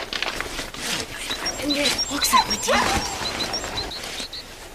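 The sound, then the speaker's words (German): A dog named Oskar is put into a backpack: heavy rustling and muffled thumps of fabric, with faint high whimpering sounds and indistinct vocal noises. “ab in den Rucksack und dann klingt es so, als würde Oskar so fünf Meter in so einen Sack fallen.”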